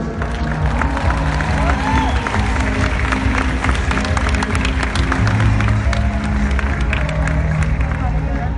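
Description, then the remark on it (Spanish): A crowd claps steadily throughout for a person the speaker introduces, a dense wash of many hands with a background murmur of voices and a few scattered shouts, holding at an even, fairly loud level. “un aplauso para”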